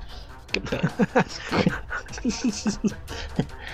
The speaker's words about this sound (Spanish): hasta se alteraron los perros allá.